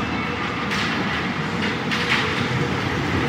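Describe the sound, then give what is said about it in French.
Steady rumbling and hiss of a Paris metro (RATP) train in motion on public transport, with faint rattling and brief brighter bursts of noise, loud throughout as if heard from inside a carriage. “Dans un environnement de transport en commun, donc avec, euh, avec bien sûr euh, cette mystérieuse voix qui est celle de la RATP, hein, qui annonce le passage des stations de métro.”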